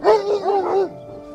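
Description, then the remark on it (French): A dog lets out a short, whiny, wavering yap lasting under a second, fairly loud, then trails off into a faint steady hum. “ne rêverait pas de comprendre réellement ce que son chien essaie de communiquer quand il jappe à l'aide d'une IA qui analyserait aussi les traits de son visage et sa posture?”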